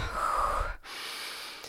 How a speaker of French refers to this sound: Chaque bout de phrase était entrecoupé d'une respiration laborieuse et sifflante.